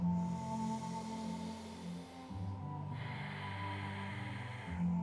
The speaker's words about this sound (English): Nice, and then from here, come into all fours, hands and knees. Just notice where you're at right now, breathing in and out the nose.